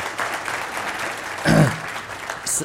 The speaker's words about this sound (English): And I just want to say thank you to my staff and uh, thank you to all the volunteers. And if you guys could just give them a round of applause for, for uh, serving you.